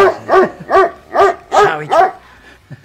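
Dogs bark in the background behind the speaker in a quick, steady run of about five loud, clear barks, followed by a couple of faint, softer yips trailing off at the end.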